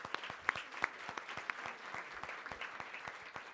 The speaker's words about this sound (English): Yeah, I just want to um, please join me in giving uh, a round of applause again to our panelists here today.